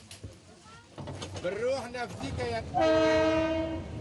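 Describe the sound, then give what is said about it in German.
A train horn sounds a long, steady blast near the end, after rumbling rail noise over bumpy tracks and overlapping voices of people talking. “Etwa 180 Kilometer sind es über holprige Gleise bis zum nächsten Halt, normalerweise drei Stunden Fahrt.”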